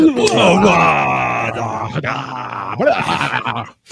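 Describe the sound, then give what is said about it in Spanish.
A man's voice imitates a New Zealand Maori haka chant, performed live on a channel: loud guttural bellows and groaning shouts with rising and falling pitch, several forceful bursts in a row. “Vamos a hacerle como ese comentarista que cuando le cuando se suscriben en su canal, ya lo había comentado, empieza a hacer jacas en vivo.”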